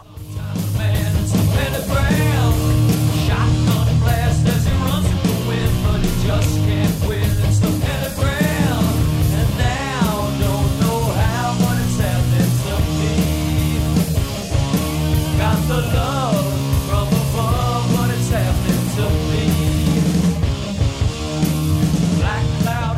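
A heavy doom metal song from a band's debut album plays loud and steady throughout, with thick distorted guitars, pounding drums and a wailing, sliding vocal line over the top.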